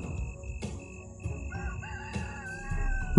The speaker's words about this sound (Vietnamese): 3 giờ sáng Đúng lúc ấy ở bên ngoài cửa gian nhà chứa củi Tiếng gà gáy đã cất lên